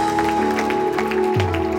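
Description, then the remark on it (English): An audience applauds because four or five people raised their hands to get right with God, scattered claps rising in soft bursts over sustained organ or keyboard chords that hold steady and then shift lower near the end. “People are clapping because I saw four or five people raise their hand and say, Today's my day to get right with God.”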